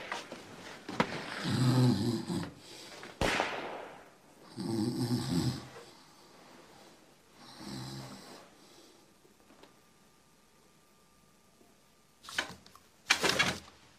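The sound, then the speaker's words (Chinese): A regiment commander snores while asleep in deep, rumbling breaths, three slow, evenly spaced snores with quiet gaps between, followed by two short, sharper bursts of noise near the end. “团长，你睡觉这会儿，前面有张参谋长指挥”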